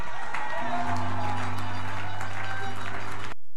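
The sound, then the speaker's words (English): An audience claps together in a dense, steady burst of applause lasting about three seconds, with a sustained low musical drone underneath and some voices mixed in, before it cuts off abruptly. “If you are clapping, you are there.”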